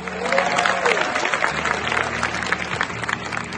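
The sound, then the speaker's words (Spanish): Loud, sustained applause from a large crowd in the great hall of an international summit, celebrating an agreement reached after a long night, a dense steady clatter of many hands clapping with no break, a faint low hum running underneath. “Los líderes internacionales se tuvieron que quedar un día más y tras una larga madrugada hubo acuerdo, celebrado en el gran salón de la cumbre con un estruendoso aplauso.”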